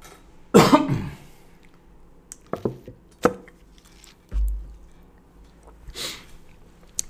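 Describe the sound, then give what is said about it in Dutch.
Someone sips water: a short throat-clearing burst, then soft wet swallowing clicks and a dull low thump as a glass is set down, with a final breathy exhale. “Ik neem maar even een slokje water.”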